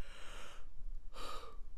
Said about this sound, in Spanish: Perdón, estoy bostezando.